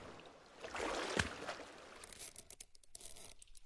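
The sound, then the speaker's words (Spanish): A boat moving through the sea off a beach, its rushing, splashing wash swelling up loudly, then breaking into scattered sloshes and knocks as it passes. No one speaks. “Y por ahí viene un barco.”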